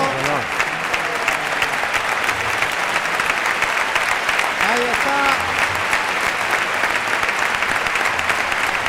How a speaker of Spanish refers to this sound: Tomás Rufo que brinda el toro a José Antonio Carretero entre la ovación de la maestranza